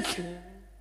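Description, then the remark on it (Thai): A single sharp sneeze: a sudden breathy burst that trails off into a brief voiced tail, with no talking around it. “จะเป็นโควิดกับเขาแล้ว เนี่ย เดี๋ยวจามไปจามมา เดี๋ยวฟันล่วงออกมาเล่มหนึ่งยุ่งเลยนเนี่ยแก่แล้วนะ”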